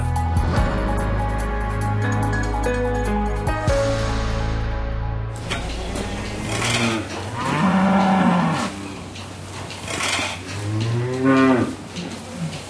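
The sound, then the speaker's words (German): Cows moo loudly in a barn at breakfast time, 8 in the morning, in a stall holding five cows, 35 goats and ten pigs; their long calls overlap against a steady background hum and clatter of livestock and machinery. “Frühstückszeit für fünf Kühe, 35 Ziegen und zehn Schweine.”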